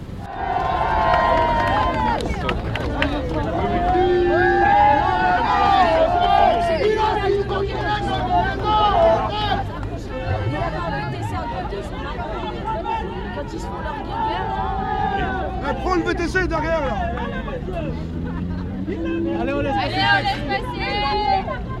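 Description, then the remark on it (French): A dense outdoor crowd of protesters against tax increases, holding a filtering roadblock at a barrier, talks and calls over one another, a steady hubbub with a low rumble that may be an idling car stopped just in front. “Vous êtes devant une, barrière, il y a une voiture juste devant nous.”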